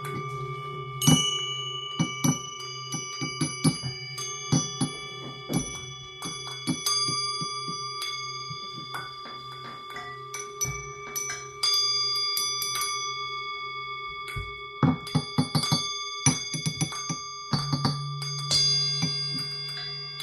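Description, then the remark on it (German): A large singing bowl rings with a steady low hum and layered shimmering overtones, struck again and again with light taps as the tones sustain and overlap. No voices are heard. “Genau, weißt du, dass ich den Klang von der großen Klangschale Traum Ja.”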